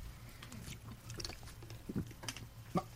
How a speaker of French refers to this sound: je vais prendre une gorgée d'eau parce qu'il faut que je dise quelque chose d'une manière.